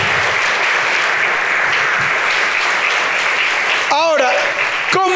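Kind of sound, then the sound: crowd, audience applause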